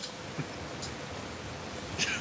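A dropped call connection: no voice comes through, only a steady, fairly loud hiss of line static with a couple of faint clicks near the start and end.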